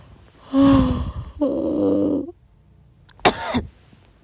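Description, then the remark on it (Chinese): A drawn-out, voiced yawn in two long groaning stretches, then a short, harsh dry-retching heave with a sharp, strained onset. No speech. “哎呀，不行，打哈欠犯干干呕。”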